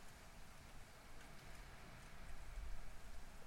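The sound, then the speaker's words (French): Dry brown leaves crackle and rustle under rhythmic footsteps on the ground in a steady texture, growing slightly louder toward the end, with no voices. “Vous pouvez fermer les yeux et écouter ces craquements secs et légers, un peu plus fort des bruissements et cadencés”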